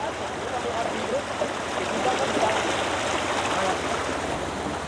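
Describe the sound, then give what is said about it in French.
A small mountain torrent fed by a spring emerging from the ground, with no waterfall above, rushes steadily: a dense continuous hiss and gurgle of flowing water with no pauses, fairly loud and even throughout. “Alors ici, vous voyez ce petit torrent qui est là, là Voilà, c'est une exurgence, c'est-à-dire c'est une source qui sort de terre.”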